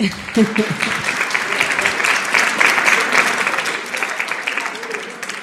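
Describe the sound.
An audience breaks into sustained applause, a dense crackle of many hands clapping at a steady loudness for several seconds, with a brief voice near the start.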